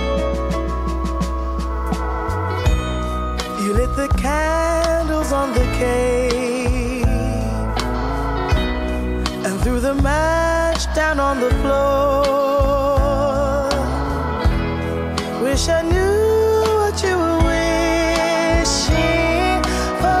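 A song with a female lead vocal over a steady bass line and full backing instruments, playing loud and continuously from start to finish.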